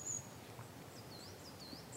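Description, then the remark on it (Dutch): Faint, distant birds sing a few thin, high whistling phrases over a steady hiss of wind through the trees in the valley of the Ourthe in the Ardennes, on a lovely day. Nobody speaks. “Vogels in de verte”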